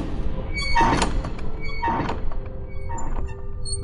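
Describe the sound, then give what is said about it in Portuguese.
A heavy emergency door, one that only opens from the inside, clunks open with two solid thuds about a second apart, followed by a faint rattle and metallic creak, with a steady background hum. “Tem sim uma porta de, em caso de emergência, é uma porta que só abre por dentro, né?”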